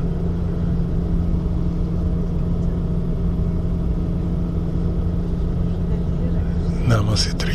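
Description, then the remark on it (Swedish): A ferry's engine drones steadily, heard from inside a bus on the ferry near Nida, before the bus drives onto the Curonian Spit: a deep, continuous rumble with a constant low hum. Near the end a brief, higher sound rises over it. “Och så här lite låter färgen.”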